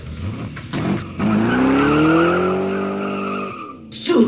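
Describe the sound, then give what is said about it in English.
A getaway car, called the Batmobile, tears away with a loud, sustained tire squeal that rises slightly in pitch and holds for a couple of seconds before cutting off, with engine noise around it. “This is Fantabulous Fairweather's in the getaway car.”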